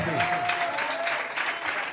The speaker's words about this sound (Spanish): Dele palmas a Dios en esta tarde.